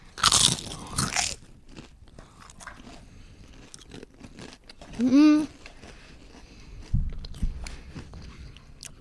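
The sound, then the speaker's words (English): A loud crunch as someone bites into crisp truffle-seasoned potato chips, followed by scattered chewing crackles and a brief hummed voice mid-clip. “Ready? Are you ready? Three, two, Crunch.”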